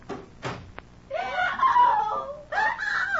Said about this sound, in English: What was that scream I just heard? It's your patient, Dr. Manette. We'll take you right upstairs to her now.